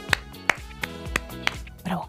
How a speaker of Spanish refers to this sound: Estoy aplaudiendo a Oscar e iba a aplaudir no solo a quienes lo han acertado, que han sido pocos, pero han dado con la clave, sino a todos los que lo han intentado.